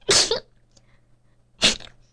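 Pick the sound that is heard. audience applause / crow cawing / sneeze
sneeze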